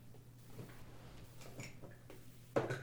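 Faint scattered taps and small knocks over a low steady hum, ending in a louder sudden clatter, as a man knocks things over on a desk while looking for a blue pen. No one speaks.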